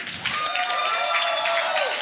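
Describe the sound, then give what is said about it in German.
An audience applauds loudly and steadily as the evening's speakers come to the front, a dense, crackling wash of clapping that keeps going for the whole couple of seconds, with a faint tonal hum beneath it. “Und zwar, äh, ihr dürft währenddessen schon mal richtig fett applaudieren.”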